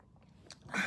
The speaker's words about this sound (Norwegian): Nå drikker jeg igjen.